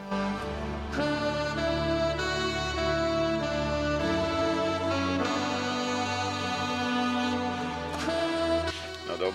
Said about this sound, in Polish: zagrał na swoim cudownym saksofonie